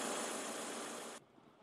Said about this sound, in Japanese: 今日から再び市民の身近な足として走り始めました。今日午前8時前、地震後初めてのバスがこちらの停留所に到着し、運行が再開されました。